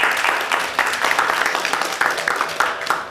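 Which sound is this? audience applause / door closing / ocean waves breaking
audience applause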